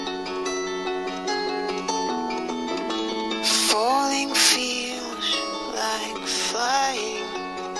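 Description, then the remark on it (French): A man sings a slow, mournful song over sustained instrumental accompaniment, his voice rising and wavering with vibrato, steady and fairly loud throughout. “vous voyez, c'est pas super un mec joyeux. Euh, c'est un mec qui chante.”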